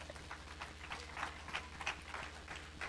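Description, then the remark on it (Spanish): Sustained applause for Christ from a crowd during a sermon, a dense wash of overlapping hand claps with a few sharper claps standing out, at moderate, steady loudness over a low constant hum, with no talking. “Dale un aplauso a Cristo, aleluya.”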